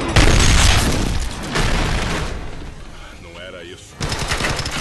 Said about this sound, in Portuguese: Aí já chega o Dolph Lundgren ele dá um tiro, arranca metade do tronco do cara pra fora, só fica as tiro perninhas.